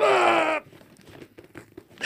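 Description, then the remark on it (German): A loud, harsh ripping of plastic packaging as a sealed bag is forcefully torn open, followed by softer crinkling and rustling as the bag is handled, then another brief tearing burst at the end. No one speaks. “Jetzt muss ich ja schauen, mit Gewalt kriege ich es bestimmt aufgerissen.”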